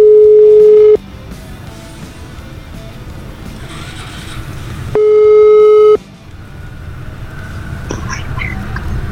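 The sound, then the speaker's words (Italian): Two loud, steady telephone line tones, each about a second long, separated by a pause, as a phone call to a singer's agent is placed, over a noisy background with murmuring voices and traffic-like rumble. “e quindi noi mandiamo in onda questa telefonica”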